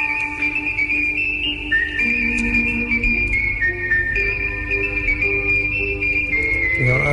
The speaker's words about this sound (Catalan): Aquest senyor fa això, el 64, el 65 fa la següent, de la trilogia, el xiulet. Sí, sí. Perquè, clar, el Sergio Leone li va dir escolta, això, el xiulet és fantàstic.